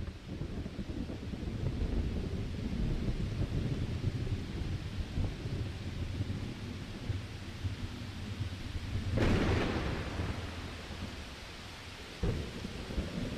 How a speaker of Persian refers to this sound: صدای رعد و برق خبر از آغاز طوفان داد.